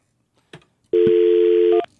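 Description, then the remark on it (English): A soft click, then a single steady touch-tone telephone beep lasting just under a second, fairly loud, with no talking. “Say, this is how you know your friends when you still have your friend's phone number memorized”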